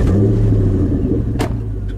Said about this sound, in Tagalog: At tuluyan nang humarurot ang kotse papalayo